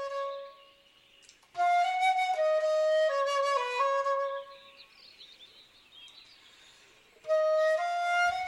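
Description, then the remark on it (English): A bird sings in two loud, bright bursts of sustained, whistling notes, with softer twittering and chirps filling the quieter gap between them. “The bird's okay, I think. It is. It's happy.”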